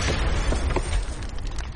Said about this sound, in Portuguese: É uma bomba!